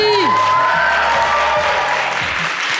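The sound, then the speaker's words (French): A live audience of students in an amphitheatre at Sciences Po Aix-en-Provence, France, bursts into loud, sustained applause mixed with cheering and whoops, a dense wall of clapping that stays steady throughout, with a few rising shouts at the start. “J'aimerais vous bruit. entendre.”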